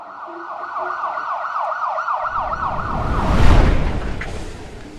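An ambulance siren wails in a fast, rising and falling warble, growing louder as the vehicle approaches amid swelling engine and road noise, peaking before easing slightly as the ambulance stops in front of a house.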